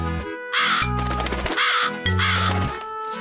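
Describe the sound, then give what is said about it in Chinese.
A crow gives three loud, harsh, raspy caws in quick succession, each lasting about half a second, over a steady low sustained tone in the background. No one speaks. “臭美的乌鸦。”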